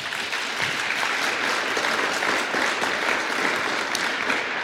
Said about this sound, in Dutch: Nou, ik wilde jullie om een applaus vragen. Ik vind het zo mooi dat dat spontaan gaat.